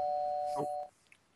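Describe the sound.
A doorbell gives a single steady electronic tone that holds for under a second, then cuts off abruptly. It is fairly quiet, with a brief murmur of voice partway through.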